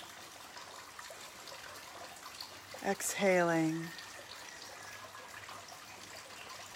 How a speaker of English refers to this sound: listening to the sound of the rain on the banana leaves. I know, I bet you thought it was always sunny here in Bali. Not so.